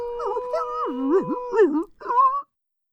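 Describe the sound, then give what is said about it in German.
Wavering howls of a shepherd's dogs, a fox and a dachshund rise and dip in pitch over a couple of seconds, with a short final howl before the sound cuts off into silence. “Die Hunde des Schäfers, der Fuchs und der Dackel fingen vor lauter Rührung zu heulen an.”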